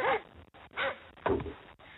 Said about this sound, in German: Hunde bellen? Ja, Hund.